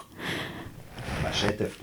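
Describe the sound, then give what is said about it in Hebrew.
A single quick, muffled sneeze bursts out amid breathy sniffing and snorting sounds, fairly soft overall, with a brief sharp hiss near the end. “לבריאות.”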